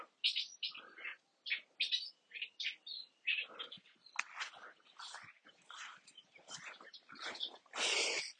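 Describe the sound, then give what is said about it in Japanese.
Wild birds chirp busily outdoors, a dense run of short, high tweets and calls overlapping one after another for several seconds, fairly soft, with no one talking. “すげえ泣いてんな。”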